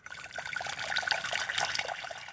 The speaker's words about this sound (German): Als erstes müssen wir Kartoffel ziemlich weich kochen, weil je weicher, dass man sie kocht, desto leichter tut man sich dann mit dem Durchpressen. Während die Kartoffeln im sprudelnden Wasser vor sich hin kochen